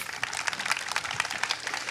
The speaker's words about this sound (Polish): Dziękuję pięknie. Proszę o brawa dla naszych panelistów.